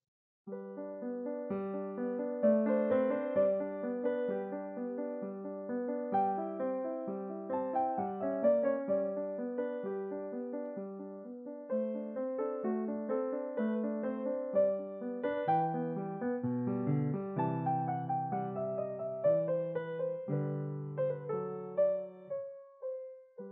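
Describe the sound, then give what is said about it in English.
A gentle piano melody over a flowing left-hand accompaniment, played softly and evenly throughout without much intensity, with little dynamic swell, clear with no voices. “If you played it with um, without much intensity, it would sound like this.”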